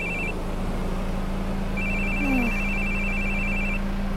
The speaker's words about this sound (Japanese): 電話鳴ってるよもう